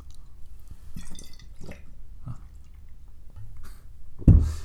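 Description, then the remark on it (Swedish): Wet, gurgling sounds of someone gulping wine straight from a bottle: a few soft sloshes and swallows, then a louder, fuller glug near the end. “när Persbrandt har en vinkväll med den här unga ja. tjejen och han halsar vinet.”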